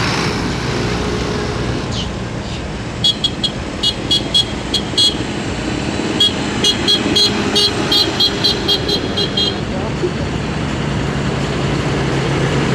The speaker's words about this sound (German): Aber die haben auch komische Hupen zum Teil, ne? Das ist die wahre Pracht.